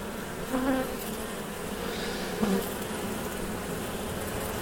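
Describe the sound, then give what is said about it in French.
A dense, steady hum of a large honeybee colony in an opened hive, continuous, with a couple of brief louder buzzes as individual bees pass near, while the beekeeper gently lifts out the first frame. No one speaks. “C'est sûr que c'est impressionnant la première fois qu'on euh, ouvre une ruche. Surtout quand c'est une belle colonie, ça grouille d'abeilles.”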